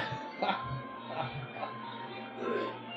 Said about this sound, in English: It's my alarm. I was like, I thought that was that kid's toy. Me too. And then I heard it a second time.